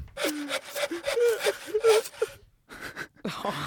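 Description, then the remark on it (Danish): A voice imitates a saw cutting wood: quick, breathy back-and-forth rasping strokes in a steady rhythm, then a short pause and a few more strokes. “Og så en sav, fordi han er, sådan, han er handy, han fikser ting.”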